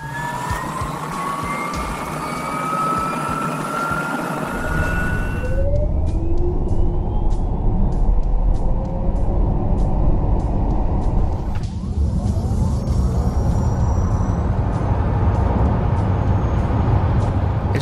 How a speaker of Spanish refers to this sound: son acelerones de modelos de esos coches.